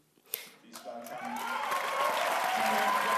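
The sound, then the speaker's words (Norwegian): A large crowd in a cinema hall in central Berlin erupts in applause and excited cheering at a film's world premiere during the Berlin film festival, building steadily from a few early claps into a sustained, dense roar of clapping and shouts. “I en kinosal midt i Berlin roper publikum begeistret for verdenspremieren på filmen, som flere av dem har vært med å betale for.”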